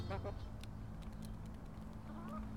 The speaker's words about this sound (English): Back in uh, our own city garden with the chickens next to me.